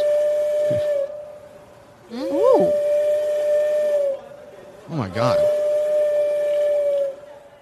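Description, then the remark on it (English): A walrus whistling in long, steady, piercing tones like a steam train whistle, sounding three times with brief gaps. A person briefly exclaims in amazement between the whistles. “It Ooh, sounds like a train, a th- but it's a walrus.”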